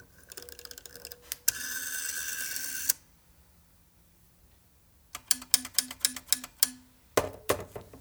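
A rotary telephone dial clicks through its turns: bursts of rapid mechanical ticking and a whirring spin as the dial returns, clear with no voices, ending in a few sharp clacks.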